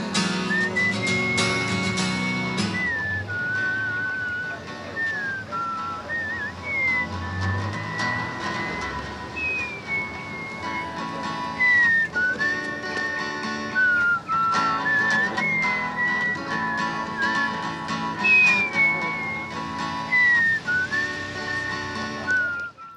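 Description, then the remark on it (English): A bright, clear whistled melody glides over steady guitar strumming, loud, continuing without pause and with no voices, as a musician plays guitar and whistles in a town square. “troubadour stops playing and is visibly upset when another musician starts playing guitar and whistling just across the street from him in the square,”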